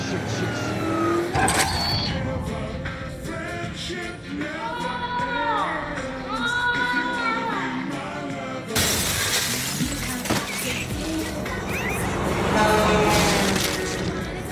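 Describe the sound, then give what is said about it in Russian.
A heavy truck brakes with a squealing screech, then a loud crash and shattering burst of debris as it runs over a dolphin in a TV series scene. Wavering high-pitched squeals run through the scene, with a second loud impact roar later. “фура переезжает дельфин.”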